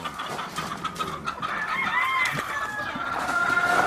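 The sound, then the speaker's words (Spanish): Hybrid fighting chickens, kept for sale, cluck steadily in the background while a rooster crows, its drawn-out call rising over the flock in the second half. No one speaks. “Pollo híbrido para combate.”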